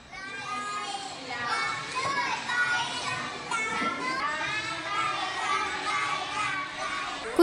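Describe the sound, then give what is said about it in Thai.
A lively Grade 1/1 classroom at Ban Padang Community School in Padang Besa subdistrict, Sadao district, Songkhla province, Thailand, full of young first-grade children chattering and calling out at once, a dense, continuous hubbub of high voices with no single speaker standing out. “ทำให้บรรยากาศการเรียนการสอนในห้องของน้องๆชั้นป .1 ทับ1โรงเรียนชุมชนบ้าน ปาดังที่ตำบลปาดังเบซาอำเภอ สะเดาะที่จังหวัดสงขลาเนี่ย สนุกสนานมาก ๆ เลยทีเดียวแล้วค่ะ เดี๋ยวลองฟังบรรยากาศของการเรียนรู้กันค่ะ”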